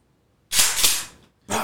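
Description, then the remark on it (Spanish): An unloaded pistol's slide is racked with a long, bright metallic rasp, followed moments later by a second sharp mechanical clack, fairly loud with no voices. “Vamos a ver si podemos hacer el ruido aquí, a ver si lo capta esta madre. Y nomás para que sepan, la pistola no está cargada, no tiene balas.”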